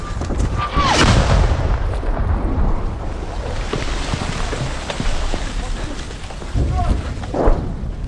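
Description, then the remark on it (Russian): Deep, rumbling booms of outgoing artillery fire and incoming shell explosions in Bakhmut, with two heavier blasts near the start and end, rolling through a steady outdoor background rumble. “Еще один постоянный звук в Бахмуте – это звук э, а, выстрелов, звук, звук прилетов, выходов и приходов.”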